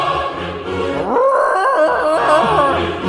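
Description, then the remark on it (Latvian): A person imitates Chewbacca the Wookiee from Star Wars: a loud, rough, wavering growling roar that rises and falls in pitch over a gravelly low growl, lasting about three seconds without a break. “ka jūs esat tas čūbijs no, no zvaigžņu kariem.”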